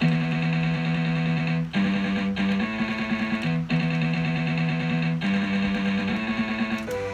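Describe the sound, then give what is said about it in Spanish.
A distorted electric guitar plays sustained chords alone, loud, with a thick processed tone through a simulated amplifier cabinet, chord changes every second or so over about seven seconds. “Si yo le pongo un amplificador, suena bien, pero cuando quiera hacer esto, no termina suena muy bien, así voy a poner un gabinete, cabinet morph.”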